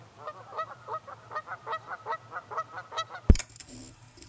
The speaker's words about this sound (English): Number six, geese.